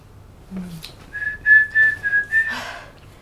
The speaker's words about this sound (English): think my singing or whistling will be affected yeah can still whistle